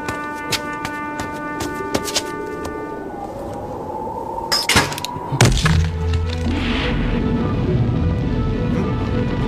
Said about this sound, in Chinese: 拿着钥匙插入山壁上方形图案，将锁打开。